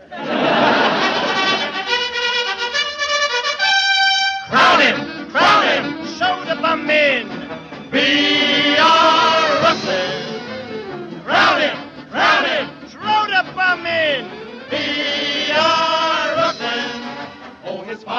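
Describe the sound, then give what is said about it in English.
A large crowd at Ebbets Field, the Brooklyn ballpark, cheers and shouts loudly and almost without pause during a gala event, the roar surging and dipping in waves, with a few sustained, tuneful tones rising above it near the start. “The park is crowded for the gala event.”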